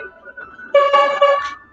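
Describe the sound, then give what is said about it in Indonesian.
A car horn honks in a loud, sustained blast of just under a second, preceded by a fainter tonal hum, then fades out. “Oke, ada klakson.”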